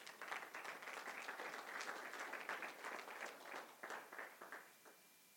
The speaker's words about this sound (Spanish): Y ellos cantando ahí, en medio de eso un aplauso al Señor.